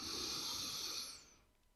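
A single long, deep breath drawn in through the nose into the belly, airy with a hissing rasp, lasting about a second before fading into quiet.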